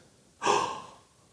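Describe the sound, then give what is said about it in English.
A single sharp, breathy gasp from a person, a quick airy intake that starts abruptly and trails off over about half a second, with nothing else around it. “When she would wear her million dollar crown and she'd wear all her jewels, they said when this tiny little woman walked into rooms, people gasped.”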